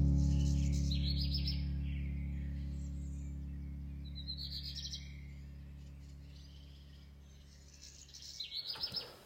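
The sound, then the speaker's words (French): A deep, sustained synthesizer drone slowly fades, while bright, bird-like chirping blips flutter above it in a few short bursts. No voices. It is a synth sound used on almost the entire second part of a song. “C'est ça Ouais, c'est ce synthé en fait. J'ai utilisé ce son de synthé sur quasiment toute la deuxième partie du morceau.”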